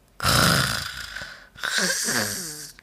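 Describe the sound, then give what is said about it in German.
A voice imitates snoring with two drawn-out snores, the first a rough, breathy rasp and the second a throatier, more voiced rumble, with a short pause between them. “Nichts, nur das Gummiskelett an der Wand schaut ihn aus hohlen Augen an und aus den Särgen um ihn herum dringen leise Schnarchgeräusche.”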